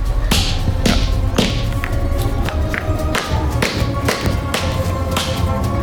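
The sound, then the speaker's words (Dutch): A hammer strikes a pencil resting on a wooden plank again and again to smash it to pieces during a workshop. Sharp blows land about twice a second in an uneven rhythm over a dense, rumbling background. “Leg hem aan een plankje onder en dan mag je met... Eh, we hebben een hamer en een potlood. Mag je met de hamer het potlood kapot slaan.”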